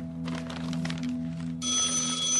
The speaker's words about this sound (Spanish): El padre atiende esta vez el teléfono.